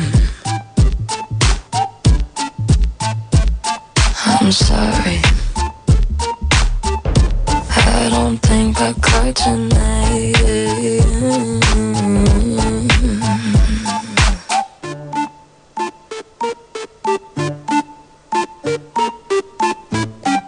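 A pop song, played on a radio show as a listener's request sent via Instagram, plays loudly, driven by a steady punchy beat and deep bass, with a fuller sung middle section before it thins back to sparse, rhythmic hits.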